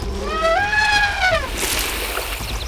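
A young elephant named Motti sprays water with its trunk, soaking a person from head to toe: a short, high, wavering trumpet-like call gives way to a loud burst of splashing spray that tapers off.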